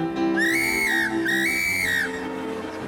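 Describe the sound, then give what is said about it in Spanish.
A person whistles an imitation of a lark's song in two smooth, high phrases, each gently rising and falling in pitch, with a soft continuous background hum and no talking. “La alondra cantaba.”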